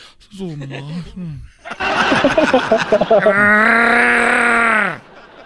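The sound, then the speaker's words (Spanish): A brief low vocal murmur, then a loud gravelly growl from Chubaca (Chewbacca) that sputters like a car engine starting and swells into a sustained roaring howl before cutting off. “Oye, Chubaca, parece que cuando hablas parece que va a arrancar un carro.”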